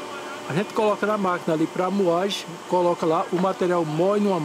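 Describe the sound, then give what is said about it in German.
A steady mechanical roar from an old, outdated plastic shredder continuously grinding plastic chairs into splinters and dust, while a man talks over it. “Dazu der Lärm eines veralteten Apparates, der so aussieht, als wäre er parallel zur Dampfmaschine erfunden worden.”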